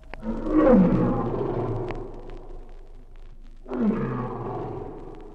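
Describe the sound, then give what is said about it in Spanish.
Two deep, rumbling roars of a sabre-toothed tiger, the first long and swelling before trailing off, the second shorter after a brief pause, loud with no voices. “Había entonces un animal terrible, el gran tigre de los dientes de sable.”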